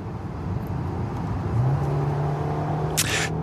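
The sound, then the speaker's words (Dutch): A Peugeot 508 SW station wagon drives steadily past, its engine hum rising to a firm, even drone over road rumble, with a brief sharp click near the end. No one speaks. “Ja, dat is de Peugeot 508 SW.”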